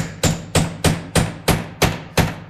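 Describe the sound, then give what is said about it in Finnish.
Seven sharp, evenly spaced hammer blows from building a birdhouse at Yle during a marathon radio broadcast ring out in a steady, brisk rhythm, each a loud bright knock with a short ringing tail. No one speaks. “Tehdään tässä linnunpönttöjä työajalla.”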